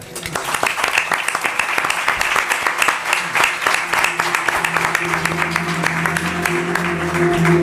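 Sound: applause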